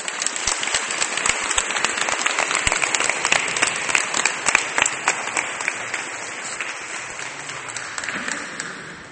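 An audience breaks into sustained applause, a dense, crackling wash of many hands clapping at a steady level for several seconds, with sharp individual claps standing out before it gradually thins.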